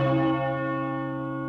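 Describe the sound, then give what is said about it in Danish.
A single deep clock bell stroke, the last of twelve at midday in a castle, rings out loud, its rich tone humming and slowly fading with no other sounds around it. “Og næppe var det sidste klokkeslag klinget ud, før der hørtes tunge tramp på trapperne.”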